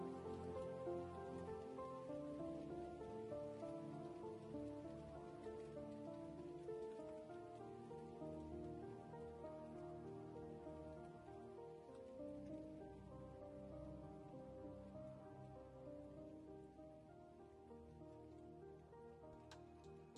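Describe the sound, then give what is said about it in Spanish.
Steady rain patters on a surface, a dense, continuous hiss that holds at an even level throughout, with soft sustained musical tones drifting underneath and no voices. “Visualiza esta lluvia que te purifica, te llena de energía, de paz, y exhala profundamente, visualizando esta lluvia.”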